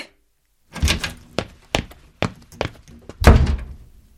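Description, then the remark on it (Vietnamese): A door is kicked open with a quick series of sharp thumps as a man storms out, then slammed shut with one loud, heavy bang that rings briefly before fading. “Nếu người nghe không tỏ vẻ tán thành thì anh sẽ lại đạp cửa xông ra như thể sẽ không bao giờ quay lại.”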